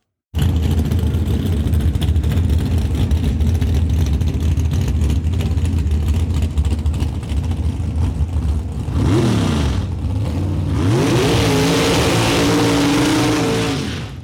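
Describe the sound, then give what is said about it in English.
A loud drag racing engine idles roughly with a deep rumble, then revs hard twice, the pitch sweeping up and falling back, before a final sustained roar. No one speaks. “That is music to the ears of drag racing enthusiasts and fans across the country.”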